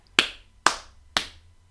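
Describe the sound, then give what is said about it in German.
Hands rubbed forcefully together and then clapped hard: three sharp hand claps, evenly spaced about half a second apart, each a crisp, bright smack that fades quickly, with no voices. “Reibe mal die Hände ganz, ganz kraftvoll aneinander und dann klatsch mal kräftig in deine Hände.”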